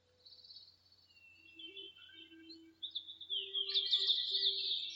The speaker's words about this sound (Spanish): Está rodeado de pinos y árboles majestuosos. La temperatura es perfecta para ti. Imagina que puedes escuchar los pájaros y el aire moviendo las ramas.